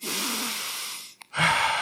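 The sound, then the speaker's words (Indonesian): A long, deep breath drawn in, a brief pause with a tiny click, then a strong breath pushed back out. No talking. “Ini sekarang coba tarik nafas,”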